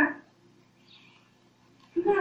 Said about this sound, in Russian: Ребята, у кого не отключен микрофон, где дети разговаривают, отключите, пожалуйста.